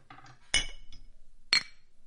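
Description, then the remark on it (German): Two bright, ringing clinks about a second apart as one person clinks two glasses together in a toast, fairly loud against a quiet background with no talking. “Warte, ich stoß an mit zwei Gläsern.”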